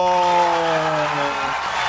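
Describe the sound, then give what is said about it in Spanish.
A crowd applauds and cheers loudly and steadily for about two seconds, a dense wash of clapping with a sustained tonal sound running underneath that fades toward the end. “El aplauso.”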